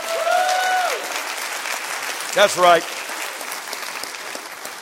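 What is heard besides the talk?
audience clapping hands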